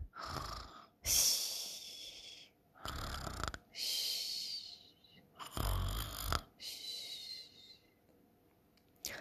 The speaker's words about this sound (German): kaum hat der kleine Igel das gedacht, da hört man ihn schon ganz leise schnarcheln.